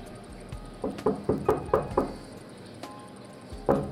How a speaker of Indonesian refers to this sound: di sana ia menemukan gubuk tua ia mengetuk pintu gubuk itu.